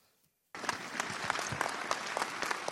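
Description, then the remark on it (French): Applause from a crowd of several dozen people at a support rally on the forecourt of the town hall starts abruptly after a brief near-silence, then continues as a steady, dense patter of many hands clapping, loud and sustained with no voices standing out. “Des applaudissements pour un rassemblement chargé en émotions.”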